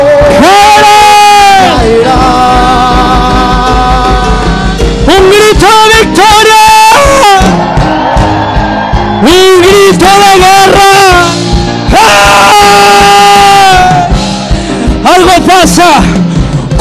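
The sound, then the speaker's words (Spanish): A crowd of voices shouts and cries out joyfully, loud and sustained, with overlapping high-pitched yells rising and falling in waves for the whole stretch. “un gritos de júbilo.”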